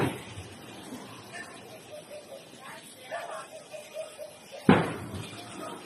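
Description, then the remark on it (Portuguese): A single explosion, one of several coming from the Imbel facility, thuds out near the end, sharp at onset and fading quickly, over a quiet outdoor background with faint chirps and murmur. “Várias explosões vindo lá da Imbel.”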